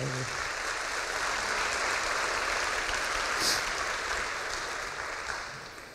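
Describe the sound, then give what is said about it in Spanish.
A crowd claps steadily for several seconds, a dense, even wash of many hands that stays strong throughout and eases off slightly near the end. “Sí, aplaudo si gusta, fuerte”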